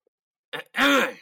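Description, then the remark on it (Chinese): A balding middle-aged man in glasses clears his throat before addressing a crowd, in two parts: a short, rough rasp followed by a longer, louder, voiced 'ahem'-like rumble, with nothing else around it. “只见他清了清嗓子后，对着人群说：”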